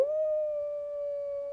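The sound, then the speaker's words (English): A person imitates their own dog's howl with one sustained, steady, mournful tone held for about a second and a half, fairly loud, with no other sounds around it. “And like the teeniest, tiniest little violin, like, dee or like my dog,”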